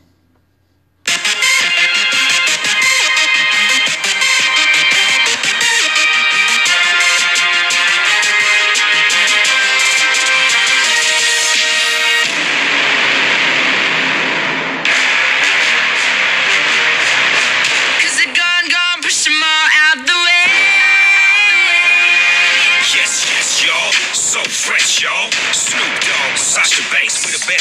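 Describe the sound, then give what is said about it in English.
A newly released rap theme song sung by a rapper, Sasha Banks' theme song, played from a phone, kicks in after a brief silence and plays loudly and continuously, rapped vocals riding over a dense, punchy beat with a slightly compressed, phone-speaker quality. “… just came out with today singing Sasha Banks' theme song”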